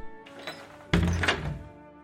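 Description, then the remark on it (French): A heavy door slams shut with a single loud thud that rings briefly before fading, preceded by a moment of softer rustling movement. “Et sans même dire merci, Réhouven s'en alla en claquant la porte.”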